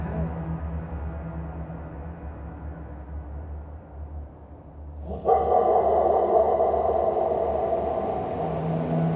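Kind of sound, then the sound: animal, dog barking fiercely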